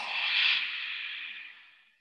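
A single long exhale through the nose during a yoga goddess squat, soft and airy, swelling briefly then trailing off over about two seconds, with no talking.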